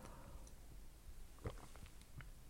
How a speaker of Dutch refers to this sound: Even een slokje thee tussendoor.